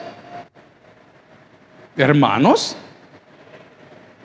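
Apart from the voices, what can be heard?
rain falling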